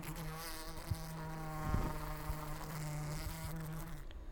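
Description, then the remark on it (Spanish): A steady insect buzz drones for a few seconds, rich and slightly rasping, with a brief swell in the middle, like a wasp hovering. No one speaks. “Pero además, zumbaré fuerte a los humanos para avisarles cuando anden demasiado cerca de mi panal.”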